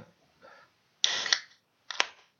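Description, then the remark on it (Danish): A beer being opened: a sharp burst of fizzing hiss with a metallic click, then a second short hiss ending in a crisp snap, with no talking. “Jeg åbner lige min øl.”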